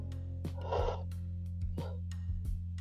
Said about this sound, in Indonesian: nguap lu